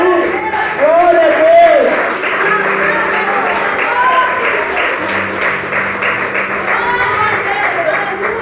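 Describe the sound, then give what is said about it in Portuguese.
An audience applauds the Lord Jesus steadily for several seconds, a dense, continuous patter of many hands clapping, mixed with raised voices calling out throughout. “aplauda o Senhor Jesus, aplauda o Senhor Jesus.”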